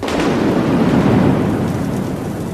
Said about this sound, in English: And then there's this huge flash. And that's when I realized, oh my God, it's a thunderstorm.